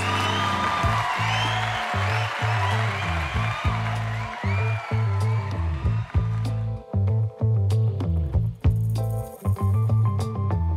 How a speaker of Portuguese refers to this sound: Senhoras e senhores, Julieta Zarza, palmas!